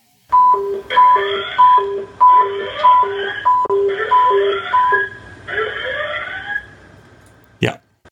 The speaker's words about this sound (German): Das war der Notruf, so wie wir ihn hören auf dem Zugfunkgerät. Der, der ist halt extrem bei laut. Bei dem jeder Lokführer Gänsehaut kriegt.